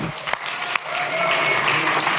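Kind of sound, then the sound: crowd, applause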